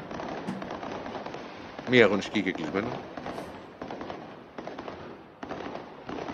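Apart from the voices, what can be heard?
fireworks exploding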